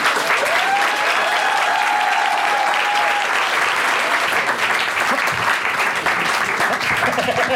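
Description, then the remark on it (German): Sustained audience applause welcoming the participants of a show in its festival lineup, a dense steady wash of clapping at constant loudness for the whole stretch, with some cheering and whistles mixed in near the start. “Applaus”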